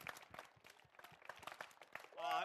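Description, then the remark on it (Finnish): An audience at a live-recorded event applauds the man behind the mixing desk, a steady, dense patter of clapping lasting a couple of seconds, ending in a brief high, tonal cheer or whoop as the clapping continues. “Annetaan hänellekin aplodit.”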